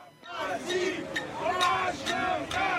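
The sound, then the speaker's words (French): Opponents of a pension reform bang pots and pans to greet a visiting government member, with sharp, irregular metallic clanks over a loud, shouting crowd, the din continuous with voices chanting and yelling throughout. “Des opposants à la réforme des retraites qui font autant de bruit que possible dans un concert de casseroles.”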